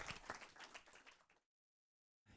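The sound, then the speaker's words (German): Audience applause, a dense crackle of many hands clapping for just over a second, then cut off abruptly into silence before a brief burst returns at the end. “Schon mal großen Applaus”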